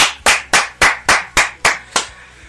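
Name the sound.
applause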